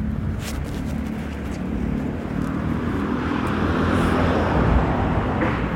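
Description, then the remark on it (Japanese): A steady, loud roar of engine and road noise swells slightly toward the end, like vehicles passing on a busy street in Tokyo, with no voices over it. “車の音とかも入っちゃうかもめちゃくちゃ入ったんや多分な いやまあそれはそれでなんか東京っぽさがあるんだ”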